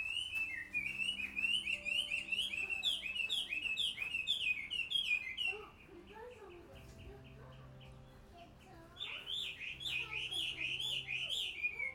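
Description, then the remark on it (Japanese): Birds, including young birds, call and chirp outdoors where the speaker lives, in dense, overlapping bursts of high twittering, loud at first, thinning briefly mid-clip before a fresh flurry of shrill calls returns. “鳥さんがすごい泣いてるので録音できるかな”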